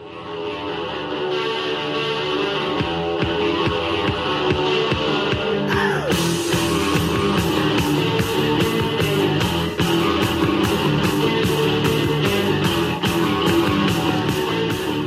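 A loud, dense post-punk rock song plays throughout, a driving guitar riff over steady pounding drums that grow more insistent midway, with no voices talking over it.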